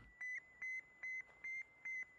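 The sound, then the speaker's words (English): A steady series of five high, pure electronic beeps, evenly spaced and each about a fifth of a second long, the radio signal programmed by the Russians into the Soviet Sputnik satellite, heard alone against faint background hiss. “That's the beeping that you're hearing here.”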